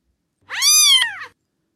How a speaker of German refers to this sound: Es maunzt, als ob es noch zu klein wäre zum Miauen.